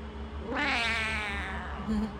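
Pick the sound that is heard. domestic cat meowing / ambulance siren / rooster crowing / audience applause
domestic cat meowing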